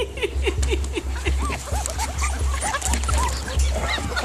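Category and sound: animal, puppy barking and whimpering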